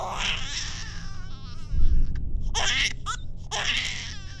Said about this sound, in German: Ich drückte das schreiende Baby in die Arme einer Frau, die bei uns stand, sowie dessen Mutter es bei mir getan hatte.